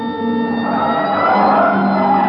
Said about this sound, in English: Hit the siren. I'll get the light.